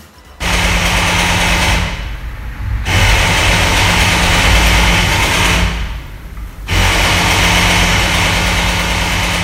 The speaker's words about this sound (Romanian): Nu e, nu e. E un interfon care s-a stricat. Oh, doamne, urât face. Face, da, face un pic, face destul de urât.